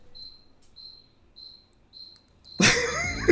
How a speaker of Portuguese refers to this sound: É um grilo que tá morando no ar-condicionado do meu estúdio. E ele fica cri, cri, cri. Então, esporadicamente, ele vai opinar sobre os assuntos aqui hoje.